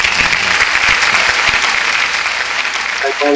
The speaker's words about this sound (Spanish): Señoras, señores, Guillermo Moreno con todos ustedes, un aplauso.